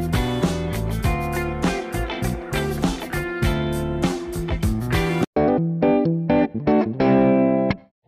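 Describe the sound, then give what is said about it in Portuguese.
A short, punchy intro jingle with heavily distorted, effects-laden synth or guitar hits over a steady beat, loud and full, briefly cutting out before a brighter closing phrase. “Isso aí pessoal, vou soltar a vinheta e começar o episódio.”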